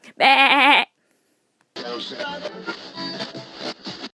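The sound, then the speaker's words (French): A voice imitates a sheep's bleat: one loud, quavering 'baa' lasting under a second, then a brief silence before a person starts talking. “Euh, bisous à tous, et puis ah puis j'avais oublié de faire mon bébé.”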